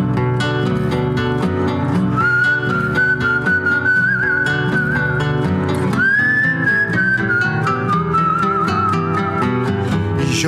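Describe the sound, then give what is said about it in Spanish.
Someone whistles a steady, sustained tune that rises at the midpoint and slowly drifts down, heard clearly over dense instrumental music with a strong rhythmic beat. “Y yo quedé con los perros chiflando pa' no pensar.”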